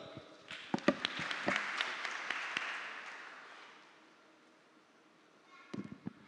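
An audience applauds, a dense wash of clapping that swells, then fades to a soft patter before a few louder claps return at the end.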